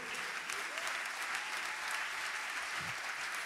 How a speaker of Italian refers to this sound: Un bel applauso a Paolo e a Leggermente.